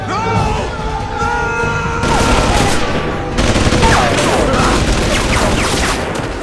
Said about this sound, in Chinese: 地中海老哥受不了了，拆开破旧的铁窗，想要逃命，跌跌撞撞的没走多远，就被哨岗上的狱警一梭子子弹放倒。